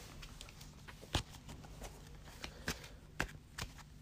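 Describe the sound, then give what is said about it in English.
A deck of cards being shuffled for a card game, with crisp riffling flutters and a few sharper snaps as the deck is squared, at a quiet level with no voices. “Shuffle this up real quick, and we're going to start on my first turn.”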